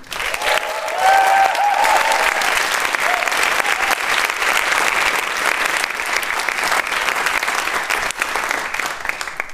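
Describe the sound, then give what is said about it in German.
Sustained applause from a live audience, a dense wash of clapping at steady loudness throughout, with a few faint whistles and cheers rising near the start. “Und live heißt natürlich auch, dass äh, wir jetzt hier nicht alleine irgendwo in so einem halligen Raum sitzen, sondern hier sind ganz viele tolle Menschen. Die kann man ja kurz mal hören.”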